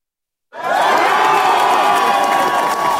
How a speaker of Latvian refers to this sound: Ar šādiem aplausiem moderātu jeb mērenās partijas biedri sagaidīja pirmās vēlētāju aptaujas datus pēc iecirkņu slēgšanas.